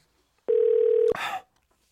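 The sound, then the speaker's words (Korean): A single steady telephone tone holds for about half a second as a phone number is dialed, then cuts off into a brief burst of crackly noise. No one speaks and the background is otherwise quiet. “그래 그 까이 거 전화 한 통 해주고 가자 싶었습니다.”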